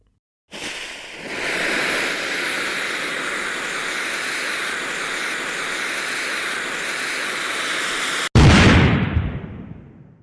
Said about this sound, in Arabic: بعد هذا الدوي الكبير والغيمة من الدخان التي ما إن انقشعت إلا واختفى معها وان